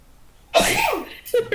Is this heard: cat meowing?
no